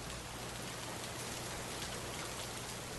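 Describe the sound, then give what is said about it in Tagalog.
Heavy rain pours down steadily onto the galvanized iron roof of a waiting shed, a dense, constant clatter of drops overhead with no voices, filling the whole stretch without letting up. “Lumipas ang ilang minuto pero napakalakas pa rin ang pagbuhos ng ulan.”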